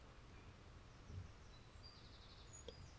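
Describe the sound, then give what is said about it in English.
Faint birds tweeting, a few thin high chirps drifting over a quiet, steady outdoor hiss with no one speaking. “Hear the birds tweeting.”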